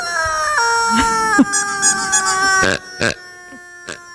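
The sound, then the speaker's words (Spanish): A rubber chicken toy is squeezed, letting out a long, loud, reedy squawk that steps down in pitch, followed by a few short, sharp squeaks and clacks. “Vamos a tres pollitos de goma.”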